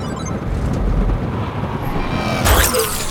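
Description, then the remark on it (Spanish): Steady low road rumble from passing cars, rising into a louder whooshing pass of two cars near the end, with no voices. “Eran dos, así no se puede. Dos carros.”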